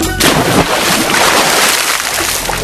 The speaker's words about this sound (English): Look! Here comes a boat!